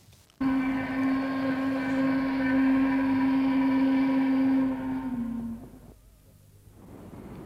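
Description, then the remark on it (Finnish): The steam whistle of the so-called Norjan saha (Norway sawmill) in Kotka, signalling the start or end of work to hundreds of workers across the industrial area, blows one long, steady, low-pitched blast rich in overtones, holding loud for about five seconds before fading out, with a faint hiss of background afterward. “Viime syksystä jo yli 80 vuotta on tämän niin sanotun Norjan sahan pilli kiirinyt yli teollisuusseudun sadoille työntekijöille joko työn alkamis- tai päättymismerkiksi.”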